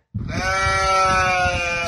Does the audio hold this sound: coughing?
no